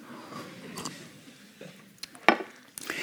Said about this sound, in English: And the whatness of this is that it is a glass of water, and I have a sip, if you allow me.